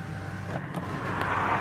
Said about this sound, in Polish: Tu latają samoloty i bo my jesteśmy. No, sorry. Latają samoloty, bo my jesteśmy w Ursusie.